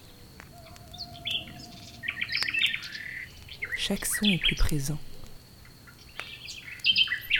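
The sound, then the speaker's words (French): Outdoor nighttime forest ambience with several birds chirping and calling in short bursts, some bright, over a faint steady high drone, while a voice speaks quietly over it. “le vent au loin, le bruissement des feuilles, le ululement du hibou”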